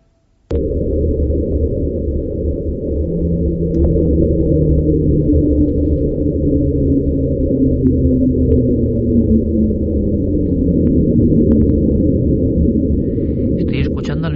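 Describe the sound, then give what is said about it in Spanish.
A loud, continuous low-frequency underwater rumble recorded in Antarctica in 1997 drones steadily for about fourteen seconds, with faint tones gliding slowly downward inside the murky, roaring texture. No one speaks over it. “Viene de la Antártida y si quieres lo escuchamos y ahora damos la teoría que ellos apuntan.”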